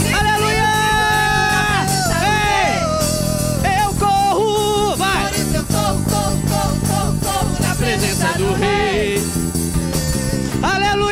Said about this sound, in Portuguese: Um grito de júbilo, vai, vai, vai. Por isso eu grito.